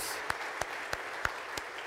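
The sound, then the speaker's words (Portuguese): Steady wash of applause given to the Lord after a prayer, with sharper, evenly timed claps punching through about three times a second in a rhythmic beat. No voices stand out. “Dá um aplauso ao Senhor pela palavra dele.”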